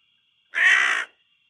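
A single harsh caw of a black crow, loud, lasting about half a second against an otherwise quiet background with a faint steady high hum.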